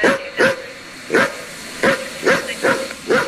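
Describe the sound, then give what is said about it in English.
A dog barks repeatedly, about six sharp, close barks in an uneven rhythm, some in quick pairs, loud and clear with a slight yelping edge and no talking. “You should get a DWB. Oh, you sick puppy.”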